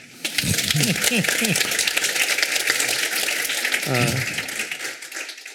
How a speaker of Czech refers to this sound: Tak já moc díky tak já vám ještě jednou zatleskám. Moc děkuji.